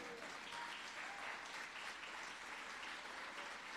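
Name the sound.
audience applauding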